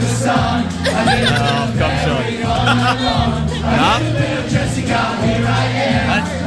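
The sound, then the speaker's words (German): A rowdy group sings and shouts karaoke together at full volume in a karaoke bar over a thumping, bass-heavy backing track, voices straining and overlapping with no break in the din. “ich war das erste Mal in meinem Leben Karaoke singen, jetzt wird es so zerrissen.”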